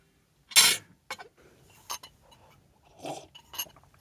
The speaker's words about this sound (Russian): У нас все лязгает и журчит, потому что мы на самом деле завтракаем. Сегодня воскресенье, а мы по воскресеньям иногда завтракаем вместе и болтаем о том, что произошло за неделю у каждого из нас. Поэтому мы чавкаем иногда, простите.